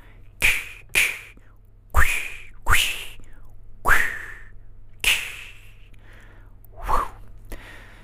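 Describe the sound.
A voice imitates a sword swinging through the air as a sound effect, with about seven sharp, breathy swooshes at an uneven pace, each a quick burst of hissing air that falls away fast.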